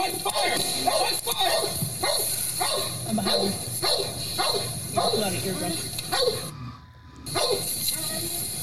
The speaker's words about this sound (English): That dog pissed. That's got to be a police canine.